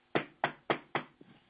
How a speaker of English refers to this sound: Is that you telling me you can hear me? Okay, I'm going to take the banging as a yes.